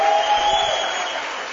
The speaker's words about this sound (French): Bienvenue dans Okapi Service, émission spéciale en direct de l'université Shalom de Bounia. Sous vos applaudissements nourris.